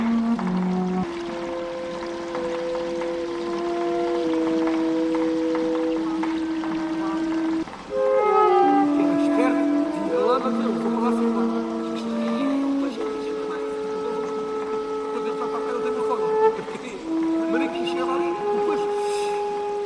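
Slow flute music with long, sustained breathy notes that glide and shift in pitch, over a soft, shimmering percussive texture, steady throughout.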